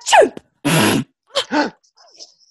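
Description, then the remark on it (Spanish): A person gives a sharp rising gasp, then a loud, breathy sneeze burst, followed by two quick shorter exhalations and a faint trailing whimper. “¡Ay, no sabía si tirarme un pedo o estornudar, viste, en este clima tan tenso de COVID!”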